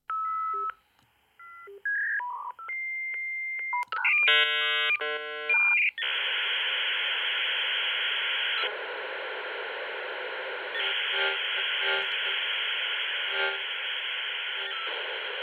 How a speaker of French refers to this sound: Le fameux son de la recherche de connexion à Internet par la ligne de téléphone, vous vous en souvenez peut-être